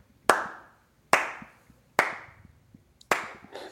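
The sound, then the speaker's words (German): Slow, sparse clapping: four sharp, loud claps spaced about a second apart, each followed by a brief fading ring, with no voices in between. “Ihr wollt mehr, ihr wollt, ihr wollt mehr Applaus, dann brauchen wir mehr Kohle, Leute.”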